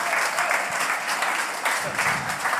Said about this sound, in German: Und bitte, das war der Applaus für diesen Anfangstext, aber nochmal einen großen Applaus für unseren Ehrengast und Stargast, Josef Paulsen vom RB Leipzig hier.